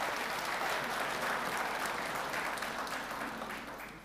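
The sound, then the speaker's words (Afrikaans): Sustained applause from a church audience for a woman who has just read a Bible passage, a dense steady patter of many hands clapping at full strength that begins to taper off toward the end, with no voices over it. “Ja, kom ek gee vir haar 'n klap.”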